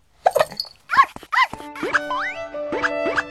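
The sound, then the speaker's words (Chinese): A small dog named Dangdang, choked by the mountain wind into a sneeze, gives three short, high yips in quick succession, followed by springy, wobbling cartoon boing tones that slide up and down in pitch. “当当被山风呛得打了个喷嚏，小吠了几声。”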